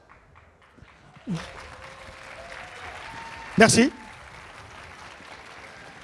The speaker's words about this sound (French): C'est marrant, quand je, donne des, quand je donne des conférences, habituellement, je ne suis pas applaudi à ce moment-là. C'est nouveau, c'est une première pour moi.